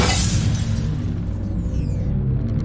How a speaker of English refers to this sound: he leapt back from the window so quickly that he rammed into the kitchen table and almost knocked it over. He heard things rolling, tumbling off the table, the sound of something breaking.